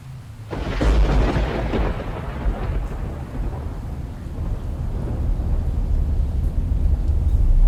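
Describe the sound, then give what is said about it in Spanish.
A deep rolling rumble of thunder breaks in and slowly fades, then swells again, over a steady wash of heavy rain. Loud, with no voices. “Hasta que regresan noches de tormenta como aquella, hasta que llueve así como hoy, y recuerdo lo que viene con las tormentas, y el temor de nuevo se vuelve real.”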